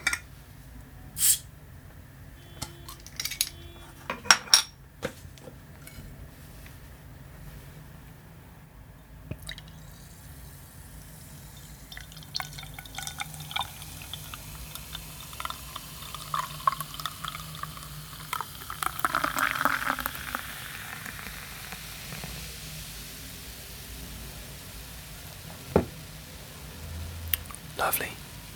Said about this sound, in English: So, without further ado, let's open the um, defining example of this style, the Anchor Steam Beer.